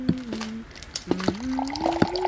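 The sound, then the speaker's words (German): Liquid is poured into a glass or cup as a woman gets herself a drink, a gurgling stream whose pitch climbs steadily as the vessel fills, broken by a few splashy clicks and drips. “Aber wenn sie sich etwas zu trinken holt.”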